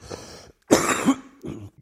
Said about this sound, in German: du hast noch einen ganz schönen Husten